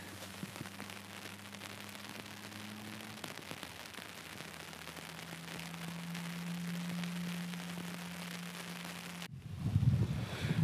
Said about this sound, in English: You could probably hear the wind already picking up.